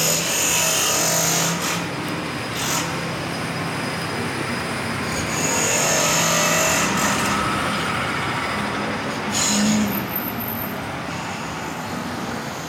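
Loud, steady construction-site noise: a dense mechanical rumble and clatter with occasional high metallic squeals and whines rising over it, continuing throughout without any voices.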